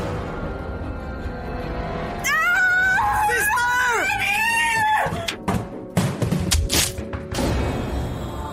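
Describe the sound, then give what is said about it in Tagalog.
A loud, drawn-out scream with wavering pitch rises, then gives way to a rapid series of heavy thuds and bumps as a nun slips on floor wax and tumbles down a steep flight of stairs. “Gumulong paibaba ang kawawang madre at bumagsak sa paana ng hagdana na walang malay tao.”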